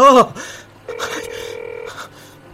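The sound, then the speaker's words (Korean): A brief breathy vocal sound, then a single steady electronic ringback tone from a phone line that lasts about a second and stops. Nobody picks up, and a low hum stays underneath. “제발 전화 좀 받아.”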